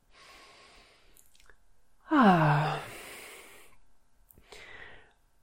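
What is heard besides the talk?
a deep breath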